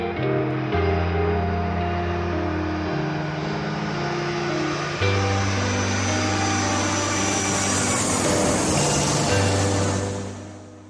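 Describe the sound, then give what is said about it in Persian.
A steady airplane engine and cabin roar after boarding a plane builds to a loud, hissing swell near the end before fading, with sustained musical tones underneath and no voices. “سیگارش روشن سوار هواپیما شدم و گوشیمو گذاشتم روی حالت پرواز”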